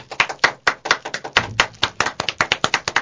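Applause: a burst of quick, irregular hand claps that keeps a steady, fairly loud patter for about three seconds, with no voices over it.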